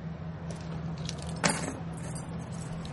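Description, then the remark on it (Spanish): A set of keys jingles in a couple of short bursts as they are handed over in a bar in Mexico, the loudest near the middle, over a steady low hum like an idling vehicle engine. No one speaks. “Dame las llaves.”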